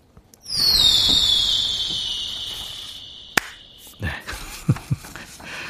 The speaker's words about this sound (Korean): 자, 이거예요. 어, 폭죽 쉥 나가는 소리입니다.